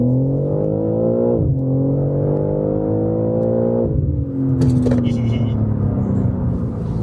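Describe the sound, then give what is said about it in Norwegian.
A car with exposed carbon bodywork, very wide gold wheels and a carbon roof accelerates hard, its pitch climbing steadily, dropping briefly at two gear changes, then rising again as the loud revving continues. “Åh, for en bil!”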